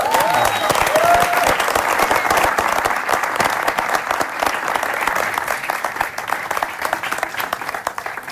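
A crowd applauds steadily and loudly for several seconds, a dense wash of many hands clapping together, easing slightly toward the end, with a brief whistle or cheer near the start. The audience is welcoming a guest at an X103.9 radio station event.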